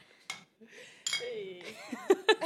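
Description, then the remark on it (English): Beer glasses clink together in a toast, a few bright taps, mixed with laughter and murmured voices. “Cheers to that. Cheers, Cheers by the way.”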